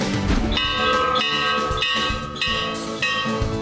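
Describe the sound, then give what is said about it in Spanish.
A school bell in Mexico rings out in steady, repeated strikes about every half second, announcing the start of classes on the first day of the school year. Each clang is bright and ringing with a long shimmering tail, loud with no voices. “La campana anuncia el inicio de clases en las escuelas, la ceremonia de honores a la bandera”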